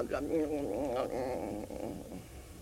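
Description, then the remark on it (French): A wavering, droning buzz like a swarm of large insects, from a group of soldiers, swells up loud, then thins out and fades over a few seconds, with a voice-like humming quality. “Le groupe des soldats, gonflement de gros insectes du groupe des soldats, immobilité.”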